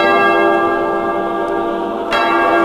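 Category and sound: sound effect, church bell ringing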